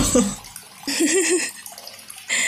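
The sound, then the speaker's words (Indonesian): Running water pours from a tap at midnight in uneven bursts, a broad hissing splash that surges, eases, and surges again, with a faint voice-like murmur underneath. “gedoran itu ditambah juga ya sih tadi suara keran terus suara bangunan terus gedor-gedor kayak wah ini tengah malam gitu kacau kacau”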